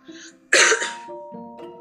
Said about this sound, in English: sorry, I've just got a bit of a cough.